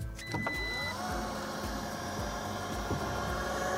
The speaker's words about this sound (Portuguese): Oh, o porta-malas tem abertura elétrica e sensor acionável com o pé. Para aquele momento que as mãos estão ocupadas, o porta-malas do XC40 abre sozinho.